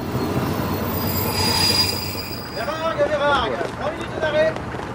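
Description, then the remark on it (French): A train rumbles through a railway station, its wheels letting out a series of high, wavering metallic squeals over a steady low roar, with muffled voices in the background. “Le 2 janvier 1960, Albert Camus est à la gare avec sa famille.”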